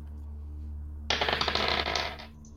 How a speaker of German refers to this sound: Äh, oh, 19 gewürfelt plus 1, 20.